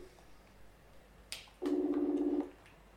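A short click, then a single electronic ringing tone from a computer call as a man opens his PC screen and calls his girlfriend back, warbling steadily for just under a second before cutting off. No one speaks.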